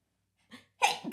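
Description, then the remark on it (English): A single sneeze: a short breathy intake, a brief pause, then a sharp explosive burst that trails off quickly. No one speaks. “Bless you.”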